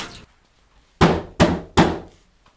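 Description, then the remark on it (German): Someone bangs on a leaking toilet, with water running out of it, three times in quick succession to stop the leak: loud, hollow thumps, each fading with a brief resonant decay, after a moment of near-quiet. “Ja, einfach gegenhauen und dann hörst du es noch?”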